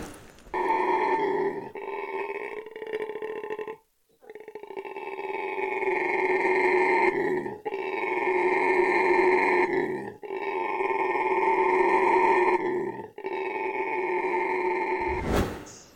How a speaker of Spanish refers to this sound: Pancho es un mono araguato que consiguieron abandonado en la selva. Oigan a Pancho para que me parezca.